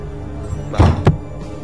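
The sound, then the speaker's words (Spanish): A door slams shut with a heavy thud, followed quickly by a second sharp knock, like the latch catching, against a steady low background hum with no talking. “Ah, que había sonado ya la puerta.”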